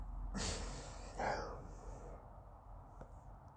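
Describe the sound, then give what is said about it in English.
Two heavy, strained breaths, a long rasping inhale followed by a shorter one, then quieter breathing and faint rustling against a low background hum. “Having a little trouble breathing.”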